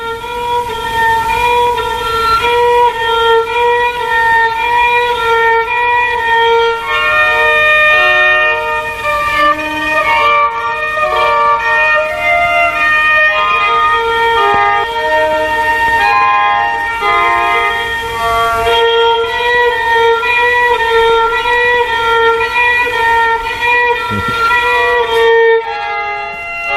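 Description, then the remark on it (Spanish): A rabel, a rare bowed folk string instrument, plays the slow, plaintive melody from the film soundtrack of Los santos inocentes in long sustained bowed notes, its thin nasal tone rich in overtones, holding a steady volume throughout with no voices. “también tiene historia esta música, porque el primero que mm, le sugiere el uso de este instrumento tan raro que estamos escuchando, que se llama Rabel, es el propio Mario Camus, que es cántabro.”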